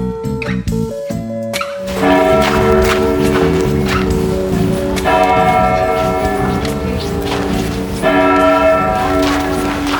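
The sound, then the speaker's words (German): Church bells of the Protestant church in Hungen, in the Wetterau, ring loudly and continuously, their overlapping tones forming a dense, resonant peal that swells after a brief quieter start and carries on steadily throughout. “Was man hier hört, ist die evangelische Kirche in Hungen.”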